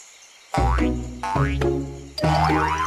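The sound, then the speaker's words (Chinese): Three springy cartoon boings in a row, each a loud twang that bends upward in pitch and quivers briefly before the next, with no talking, as Boots jumps very high to reach the pentagon-shaped key. “让我们帮步子跳得很高很高很高吧！”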